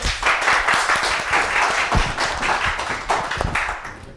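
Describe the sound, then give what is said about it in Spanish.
An audience applauds a guest on a children's program steadily for several seconds, a dense wash of overlapping claps with a few sharper individual slaps and thumps standing out, holding a fairly even loudness throughout. “con un fuerte aplauso a nuestro amigo”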